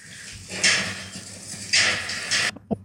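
Small lambs' hooves scurry and shuffle across a barn floor among many sheep in restless bursts as the lambs run around, with two louder rushes of patter and rustling, then a brief knock before falling quiet.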